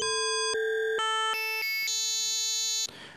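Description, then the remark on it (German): A short sequence of bright, bell-like synthesizer notes, each stepping to a new pitch and ringing with shimmering overtones. The last note sustains before a brief noisy tail, with no voices. “Man hat ja auch glockenähnliche Klänge.”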